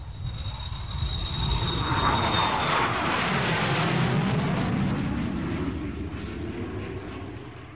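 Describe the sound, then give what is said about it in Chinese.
An airplane engine, of the plane Soong Mei-ling boarded for the United States, roars steadily, swelling to a broad rushing drone and then slowly easing off, with a faint high whine at the start. No one speaks. “几天后，宋美龄便登上了赴美国的飞机。”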